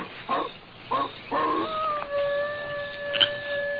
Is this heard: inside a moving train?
no